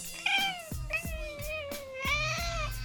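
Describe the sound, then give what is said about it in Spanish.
A cat meows insistently to be let out through a door, several drawn-out, wavering cries running almost continuously, with faint low thumps underneath. “Aunque el gato se ponga loco, lo escuchan.”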